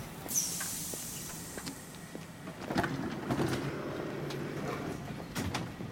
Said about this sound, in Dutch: De trein vertrekt.